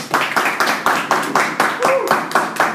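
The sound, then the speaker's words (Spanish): A studio audience at Real IG, at a recording of the show 30 minutos de poder, claps in steady unison, about four sharp, loud beats per second, with a brief rising whoop of a voice cutting in partway through. “Un aplauso muchachos.”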